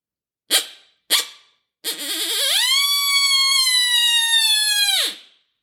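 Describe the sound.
Two sharp coyote barks blown on a predator call, followed by a long, wavering howl that rises and holds steady for several seconds before cutting off. Loud, with no talking.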